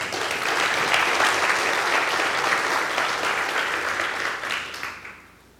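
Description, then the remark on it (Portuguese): A church audience claps for the Lord Jesus in a dense, sustained burst of applause that holds strong for several seconds, then thins and fades out at the end. No one speaks over it. “Você pode dar uma salva de palmas, Senhor Jesus?”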